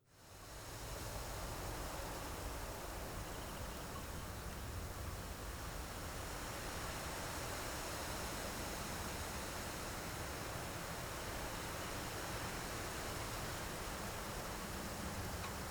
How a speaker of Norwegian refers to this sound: Hva med bris? Mild sommervind. Det er det plass til i en ny dag.